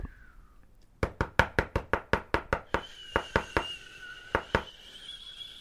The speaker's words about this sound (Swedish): Vem är det som knackar på min dörr?